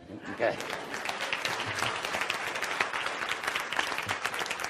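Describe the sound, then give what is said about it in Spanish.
Audience applause fills the whole stretch, a steady dense wash of many hands clapping at an even level, with some voices mixed in underneath. “Eso merece un aplauso.”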